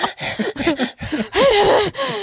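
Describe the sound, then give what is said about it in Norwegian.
Loud heavy breathing from a man on a treadmill in quick gasping bursts, several short huffs followed by a longer strained, voiced groaning exhale, with no words spoken. “Han puster, får trygt start.”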